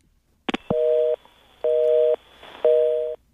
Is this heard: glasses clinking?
no